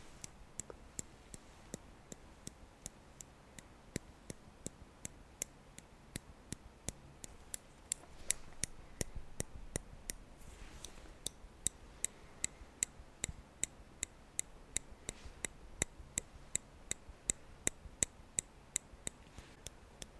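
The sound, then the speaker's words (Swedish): Tweezers plucking eyebrows: a long run of small, sharp metallic clicks coming every half second or so in an uneven but steady rhythm, with no talking over them. “Noppra ögonbrynen var det.”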